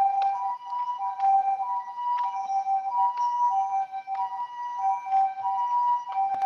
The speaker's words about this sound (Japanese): あ、ちょっと、救急車来たからちょっと待ってね。